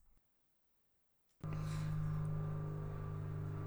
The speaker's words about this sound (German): Da fliegt ein Flugzeug. also es ist ein Flugzeug. Wir warten kurz ab, bis das Flugzeug vorbei ist.